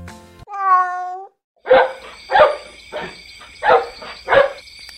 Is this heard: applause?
no